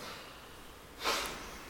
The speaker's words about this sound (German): Sitzt ganz ruhig und gerade. Atmet sehr tief vollständig aus.